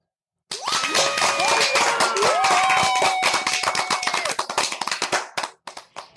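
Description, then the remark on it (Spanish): An audience of mothers breaks into dense, steady applause for themselves with a sustained whoop or cheer rising above it, then the clapping thins out into a few scattered claps before stopping. “Otro aplauso para ustedes.”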